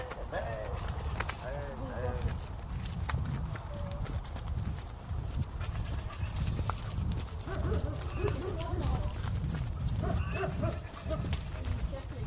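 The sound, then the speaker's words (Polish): Horse hooves clip-clop steadily in a brisk, regular rhythm from a rider's position while riding around a farm, with birds chirping and faint, indistinct voices or animal calls around them. “Jazda Konna”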